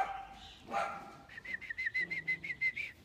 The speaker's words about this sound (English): Look, I'm sitting in my uh, backyard here in Brisbane, and of course, the moment I press live, the dogs decide to have a bit of a kerfuffle.